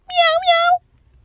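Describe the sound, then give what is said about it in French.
A person imitates a cat's meow, one drawn-out, two-part "miaou" voiced clearly, lasting under a second before fading to quiet. “Miaou, miaou.”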